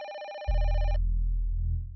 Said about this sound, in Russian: Под конец рабочего дня в редакции зазвонил телефон.